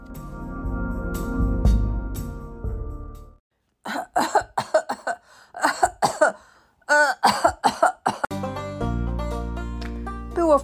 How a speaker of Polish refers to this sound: Jako pierwszy wstał Rudzik, który obudził swoim kaszlem całą rodzinę.